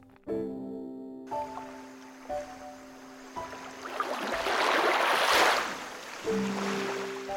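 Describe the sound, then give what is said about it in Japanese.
Ocean waves rush in a broad hissing swell that builds and crests midway, with sustained musical tones sounding above and around the surf. “目を開けたらそこにはいつもの海が広がっていたどこともつながっていない海”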